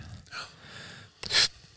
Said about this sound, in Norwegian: Ja prøve å ikke lage så mye pustelyder.